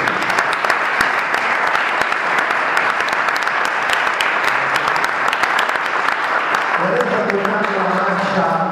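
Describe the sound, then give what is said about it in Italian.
A large audience claps steadily and densely for several seconds for the musicians of the Carabinieri bands and fanfares, the applause loud and continuous, with a voice or tonal sound emerging beneath it near the end. “sono proprio i musicisti che la compongono e, e, e mi preme quindi sollecitare per loro, componenti di banda bande, fanfare, dell'arma dei carabinieri, ma in senso economico anche delle altre forze armate, un bel applauso per la vita.”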